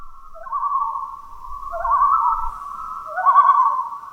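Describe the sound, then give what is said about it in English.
A common loon calling at night in Canada, a long, mournful wail that rises, wavers and swells in a few connected phrases, clear over a faint low rumble in the background. “The loons I was after have a call or vocalization that is an iconic nature sound in the area of Canada where I live.”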